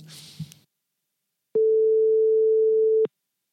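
A brief rustle, then a single loud, steady telephone call tone sounds for about a second and a half while a phone call is being dialed, and cuts off abruptly, with no voices.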